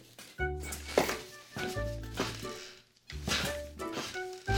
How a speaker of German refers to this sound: Ich sitze noch im falschen Stuhl, weil der hier sehr quietscht und ich eigentlich den anderen holen muss.